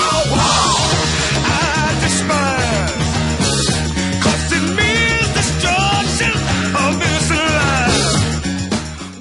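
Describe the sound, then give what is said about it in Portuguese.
A loud, full Motown soul band plays with brass and a driving beat while a raw male voice shouts fierce, drawn-out war-cry yells over it, rising and falling several times. “Vocês ouviram aí um grito de guerra, né,”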